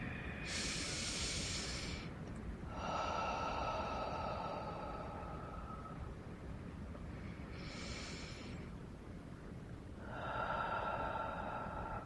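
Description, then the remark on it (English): Slow, deep breaths during a Reiki breathing meditation, alternating airy inhales with longer, breathier exhales breathed out onto the hands, about two full cycles over a steady low background hum. No one speaks. “breathing out onto the hands wherever they may need it.”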